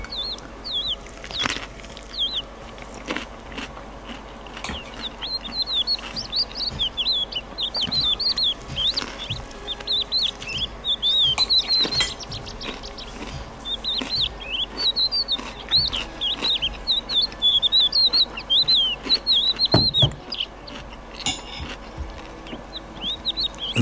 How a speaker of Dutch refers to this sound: zo antwoordde onze vriend de leeuwerik vanuit de eeuwige leeuwerikvelden.